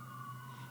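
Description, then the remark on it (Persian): A fire engine siren wails steadily from outside, a sustained mid-pitched tone with a low engine rumble beneath it, heard briefly as fire engines head to a fire to rescue people. “این دوستان این صدایی که میشنوین یه جای آتیش گرفته و دوستان آتشش هایی دارن میرن یه سری آدم نجات بدن”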